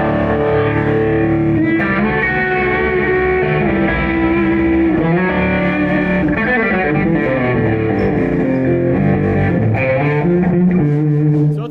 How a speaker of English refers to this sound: pretty heavy stout overdrive, and then if you stack the melody on top of it. That's sort of more of the lead tone, right?